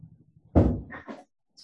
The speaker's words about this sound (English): oh, sorry, I have to let my dog out the door here.